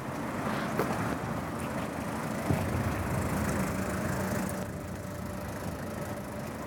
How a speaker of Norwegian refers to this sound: En lyseblå Ford Granada ruller sakte bortover